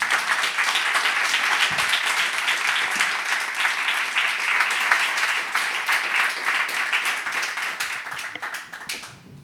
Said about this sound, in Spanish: Pues venga, todo, todo tuyo con este aplauso.